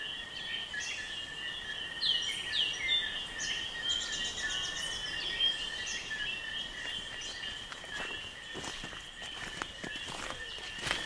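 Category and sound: bird, birds singing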